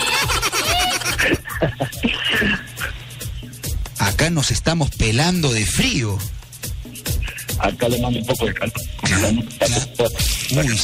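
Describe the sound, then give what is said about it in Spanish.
Choppy, breaking-up phone call audio from a caller in Puerto Maldonado: a voice talking over the line keeps cutting in and out, with rapid dropouts and garbled, stuttering fragments throughout, loud and uneven. “se escucha como entrecortado, ¿no, gato?”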